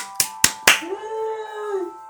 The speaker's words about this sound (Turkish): alkış yapıyorsun.